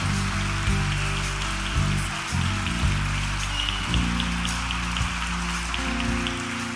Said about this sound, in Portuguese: Aplaude o Senhor, aplaude o Senhor. Aplaude o Senhor.